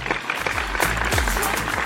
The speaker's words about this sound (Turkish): Bir alkış daha göndereyim ben.